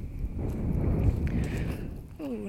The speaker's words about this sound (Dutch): Eh, loop ik weer in de wind. Dan hoop ik dat ik nog te verstaan ben.